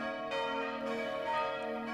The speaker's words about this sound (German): Die drei Glocken des Bogengrüner Geläutes erschallen heute, wie alle Jahre am Pfingstmontag, nicht nur für das kleine Frankenwalddorf, sondern auch für die mehr als 10.000 Menschen, die hier für drei Tage zur alljährlichen Bogengrüner Pfingsttagung